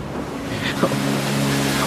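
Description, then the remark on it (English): Steady ocean surf rushes and hisses continuously, with one brief splash as a wave strikes rock partway through. No voices are present. “I hear the sound of sea against rock.”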